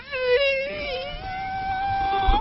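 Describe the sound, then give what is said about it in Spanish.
A stretched balloon neck, its tip pulled so the edges come together and vibrate, lets air escape in a continuous, high, reedy squeal lasting a couple of seconds, wavering slightly and creeping upward in pitch before cutting off. “Eso es porque al jalar la, orilla del globo se juntan los bordes y a la hora que regresa el aire y hace que vibre.”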